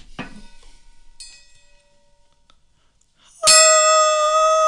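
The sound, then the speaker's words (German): A short bright strike at the start with a ringing decay, then a loud sustained ding-dong bell chime jingle enters near the end, with rich steady harmonic tones ringing out clearly. “Next Ringelinge Ding Ding Dong.”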